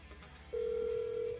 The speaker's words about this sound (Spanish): Ahí escuchan ustedes que está sonando el teléfono.